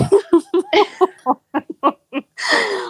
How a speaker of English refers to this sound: More like did you just snort? I snorted. I wasn't expecting to laugh so much, and then a little snort came